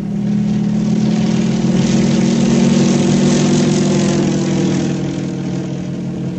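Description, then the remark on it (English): A propeller airplane engine drones steadily and loudly, a continuous low rumbling hum with a slight swell in the middle before easing off a little, with no voices present. “In the air.”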